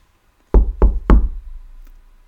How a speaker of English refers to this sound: So Jesus says, Listen, I am standing at the door knocking. If you hear my voice and open the door, I will come into you and eat with you, and you with me.